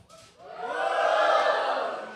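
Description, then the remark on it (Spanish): A church audience, standing, lets out a loud, sustained collective shout to the Lord that swells within half a second and holds steady for about two seconds, many voices blending into one roar. “A ver, un grito bien fuerte en este lugar al Señor.”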